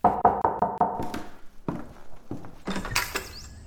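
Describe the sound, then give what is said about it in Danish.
A quick series of five or six firm knocks on a front door in steady rhythm, followed by quieter shuffling and clattering sounds. “Der går yderligere 5-10 minutter, før jeg seriøst overvejer bare at skride, men så banker det på hoveddøren.”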